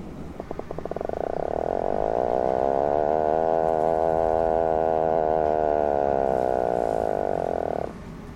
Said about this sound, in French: je vous laisse avec le flippant petit macareux qui a l'air trop choupi comme ça, mais que j'aimerais pas croiser le matin au réveil.